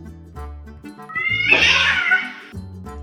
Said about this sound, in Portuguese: Desculpem o Batatinha. Ele não gosta muito de ficar perto de pessoas. Ele diz que é um gato feral. Miau!